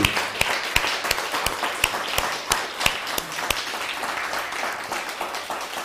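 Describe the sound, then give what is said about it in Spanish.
A crowd at a Shabbat gathering applauds with a dense, steady patter of clapping, sharper individual claps popping out at a quick rhythm throughout. No one speaks over it. “Dale un fuerte aplauso, por favor, a esta, este Shabbat.”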